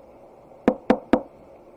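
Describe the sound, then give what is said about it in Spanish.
Three sharp knocks on a wooden door in quick, even succession, fairly loud, with a quiet background and no voices. “Una mañana, por la ventana, ve un cerdo ricamente vestido que llama a su puerta.”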